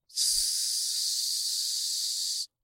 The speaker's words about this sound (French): en sorte que euh, le bruit du steak quand on le cuit, ce soit le même que le bruit d'un vrai steak de bœuf qu'on mettrait sur le barbecue.